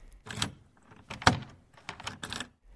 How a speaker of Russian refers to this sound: Но когда надзиратель распахнул дверь и, быстро окинув камеру, привычным взглядом сказал «Пожалуйте!»